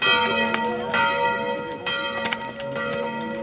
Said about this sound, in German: Das Angelus läuten früh um sieben.